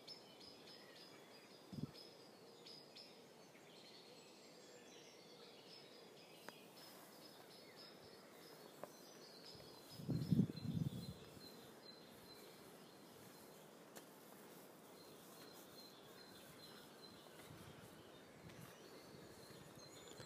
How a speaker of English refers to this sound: Birdsong is just, you know, overwhelming in, in that area, and I've come into here and all I can hear is the birdsong from where I've come from.